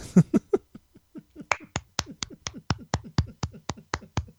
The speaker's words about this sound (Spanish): O sea, lo que es el aplauso triste, ¿no? Bueno, es que estoy solo, tampoco puedo hacer mucho más.